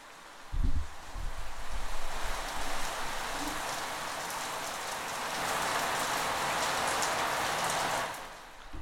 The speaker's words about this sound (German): Okay, meine Freunde, wie ihr schon hört, es regnet ein wenig, würde ich mal behaupten. Um es anders auszudrücken, es schüttet aus Eimern. So viel Regen, das habe ich lang nicht mehr gesehen. Wir können da mal hinhören.